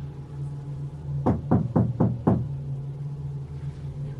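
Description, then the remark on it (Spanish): Five firm knocks on a door at night, near 3 a.m., in a quick, even series, distinct, over a steady low hum with no voices. “Esa misma noche, ya cerca de las 3 de la mañana, me despertó el sonido de alguien tocando mi puerta.”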